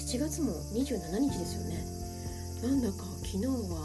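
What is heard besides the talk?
cicadas chirping loudly outdoors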